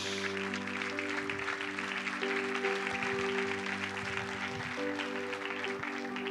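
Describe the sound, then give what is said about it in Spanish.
An audience claps and cheers to God in a steady, dense wash of applause lasting several seconds, while sustained keyboard chords play underneath, shifting a couple of times. “Denle un aplauso a Dios.”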